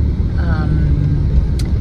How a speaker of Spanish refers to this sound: Aquí vamos en el carro con ella.